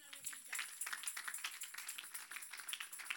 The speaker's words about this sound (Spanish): Era un aplauso al Señor.